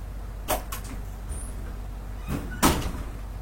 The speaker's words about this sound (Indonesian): Pintu dia kayak mainan. movementnya kayak gitu ih Lego